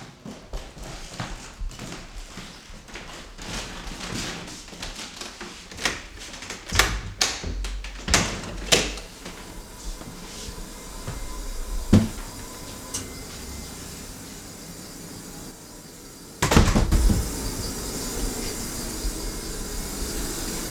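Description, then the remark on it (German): A steady hiss and low whir from a draft-free air conditioning system in an archive, broken by scattered clicks, knocks and a louder clatter near the end. “Was man hier hört, ist eine quasi eine zugfreie Klimaanlage.”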